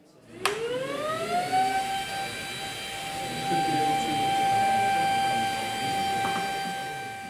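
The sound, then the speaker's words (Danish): A Capra robot vacuum starts up with a sharp click as it sucks cigarette butts up from the floor, its motor whine rising in pitch over two seconds and then holding a steady, loud tonal hum with harmonics, plus a faint rattle near the end. “Ja, og det vi fik lyden af her til sidst, det var faktisk Capras robot, der støvsugede cigaretskåret op for gulvet.”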